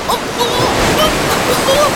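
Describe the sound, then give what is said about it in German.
Huge waves churn the water in a loud, continuous rushing roar that fills the whole moment, steady, with faint higher tones flickering over the turbulent wash. “Diese riesigen Wellen! Die wirbeln das Wasser wirklich total durcheinander.”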